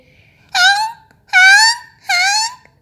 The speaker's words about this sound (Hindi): सांबर हुंकार भरते हुए भाग गया इसकी आवाज़ तो गाड़ी के भोंपू हॉर्न जैसी है